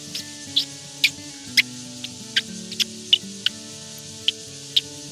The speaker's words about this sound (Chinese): 它的母蛙是在草丛中聆听啊，雄蛙会跑到那个草的上方，就是我们讲草蛙，草蛙啊。雄蛙叫叫它，它会听，它听了它会移动，母蛙会移动，因为说哎这边它只有一个母蛙在这边，大概是有三到五只雄蛙就在附近就开始鸣声了，对，然后这样。